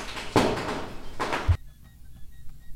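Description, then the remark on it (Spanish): Two loud, harsh crashes in quick succession, gunshots followed by a pane of glass shattering, each bursting sharply and then cutting off abruptly into a quiet, faintly humming background. “Oye, sí son balazos. Sí, güey, se rompió un cristal.”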